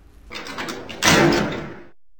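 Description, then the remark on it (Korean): A heavy stone cave door scrapes and rattles open from inside, starting with a low grinding rumble, then a louder, sustained clattering slide that fades out after about a second. Fairly loud, with no voices. “그러자 안에서 덜커덩 문이 열리며 소대가리 요괴들이 우르르 몰려 나왔습니다.”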